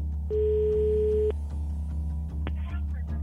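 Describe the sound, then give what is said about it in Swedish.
A single steady telephone ringing tone sounds for about a second over a low background hum, followed by quiet line noise and a soft click as the phone call is answered. “Det tar nästan en månad att ringa runt till alla de olika icke-fungerande numren innan han svarar.”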